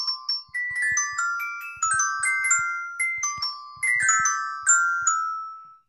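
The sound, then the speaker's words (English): A short, bright xylophone jingle with quick struck notes in a bouncy melodic run and soft low thumps underneath, played loud with no voices. “glad you brought a, a, Latin flavor to the xylophone”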